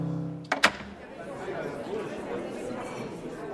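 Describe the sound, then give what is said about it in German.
Auditorium doors at the Festspielhaus St. Pölten clunk open with two sharp knocks at 7 p.m. admission, then the steady murmur of waiting guests chatting, some drinking wine or eating rolls, fills the space, no single voice standing out. “Die Türen des Zuschauerraums öffnen sich. Dahinter warten schon einige Gäste, so mancher trinkt noch ein Glas Wein oder isst ein Brötchen.”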